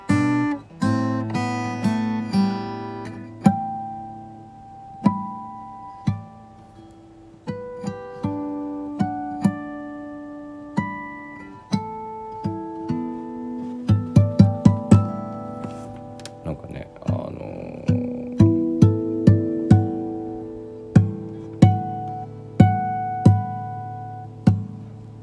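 An Epiphone acoustic guitar is played alone, single plucked notes and light chords ringing out one after another at an unhurried, meandering pace for the whole stretch.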